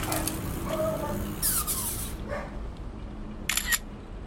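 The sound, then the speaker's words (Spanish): Two crisp camera shutter clicks, the first a longer bright snap and the second a short sharp click a couple of seconds later, over a steady low background hum. “Eh, para, voy a sacar una foto, así puedes ver.”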